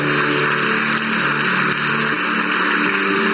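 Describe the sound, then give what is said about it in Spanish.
A large crowd applauds Jesus loudly and steadily, the clapping blending into a dense, continuous roar with a low hum beneath it and no voices. “Ah, vamos a un fuerte aplauso a Jesús.”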